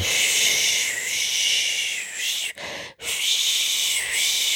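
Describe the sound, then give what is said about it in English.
A voice imitates a white noise machine with a steady, breathy hiss that holds for several seconds, broken by two brief pauses for breath before resuming at the same level. “That's the sound of um, the white noise machine white noise in their machine room.”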